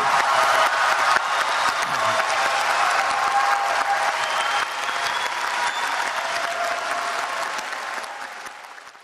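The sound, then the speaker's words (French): Loud, sustained applause from a large crowd, dense clapping that stays strong for most of the nine seconds before easing slightly toward the end, with no speech, as the Paris climate agreement is adopted at COP21, the 21st international climate conference, in December 2015. “Vous l'entendez aux applaudissements enthousiastes, l'accord de Paris, signé le 11 décembre 2015 lors de la COP21, qui est la 21e conférence internationale sur le climat, a été qualifié d'historique.”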